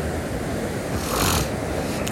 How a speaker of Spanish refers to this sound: Para que no escuchen mi voz, escuchen ese océano detrás y se relajen conmigo.